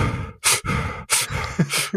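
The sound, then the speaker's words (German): A voice imitates heavy, gasping breathing: several loud, rapid breaths in and out with harsh, airy bursts, with no words spoken. “Er hat so dieses Atmen, dieses”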